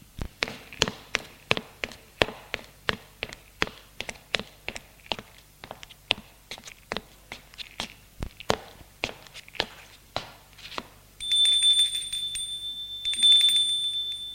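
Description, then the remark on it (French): Steady footsteps climb the stairs of an old apartment building to the third floor, about two sharp treads a second for roughly eleven seconds, then a high electric bell rings twice in bright sustained bursts. “Il monte les escaliers pour aller au troisième étage.”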